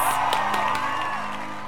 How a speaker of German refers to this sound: Fertig. Applaus.